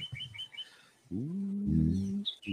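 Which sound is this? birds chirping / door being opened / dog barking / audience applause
birds chirping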